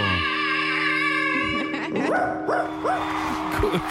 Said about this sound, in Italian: c'è l'abbaio finale.